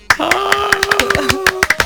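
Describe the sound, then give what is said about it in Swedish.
A short burst of applause: loud, sharp hand claps in a quick, slightly irregular rhythm for about two seconds, with a steady sustained tone humming underneath. “Du får en applåd.”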